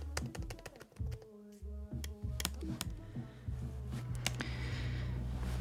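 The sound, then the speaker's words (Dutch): Sharp, irregular clicks from a bat detector crackle and tick in uneven bursts, some loud, over a low steady hum with no voices. “Het was geen toetsenbord. En ook geen blinde stok. Het was een beddetector.”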